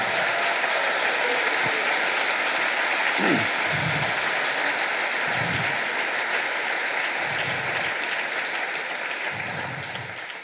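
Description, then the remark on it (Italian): An audience breaks into sustained applause for God, a dense, steady wash of many hands clapping at once, holding strong before beginning to thin out at the very end. “Tutto questo vogliamo ringraziare Dio e fargli un applauso per quello che Lui ha fatto nella nostra vita.”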